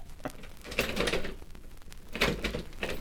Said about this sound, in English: Door stuck? Don't worry. I'll get it open.